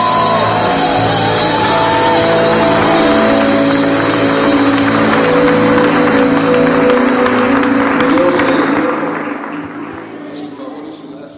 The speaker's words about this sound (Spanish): Vamos iglesia, fuerte el aplauso al Señor. Fuerte el aplauso al Rey de Reyes. Creo que lo pueden hacer mejor al Rey de Reyes.